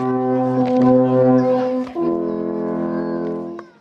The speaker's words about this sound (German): Ich habe versucht, wenigstens einen gescheiten Ton aus dem Alphorn zu bekommen, aber das Blasen muss gekonnt sein. Ich bin diesbezüglich ein absoluter Anfänger.